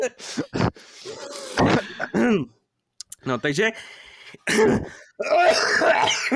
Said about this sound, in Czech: to je kašel, mám, kašel mám překouřen